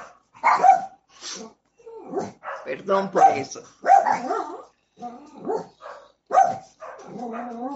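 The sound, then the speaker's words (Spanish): A small dog passing by lets out a few sharp, high-pitched yips and barks at irregular intervals, while someone keeps talking steadily over them. “Oye, hay un perrito pasando por allí.”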